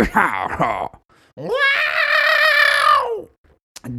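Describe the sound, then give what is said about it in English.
A voice imitates someone straining to cough up phlegm in the morning: a few short guttural grunts, then a long, loud, drawn-out throaty groan, cutting off abruptly. “That's what I sound like when I'm trying to cough up phlegm in the morning.”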